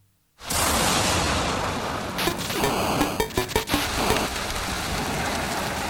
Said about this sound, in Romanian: Mamă, ce plouă.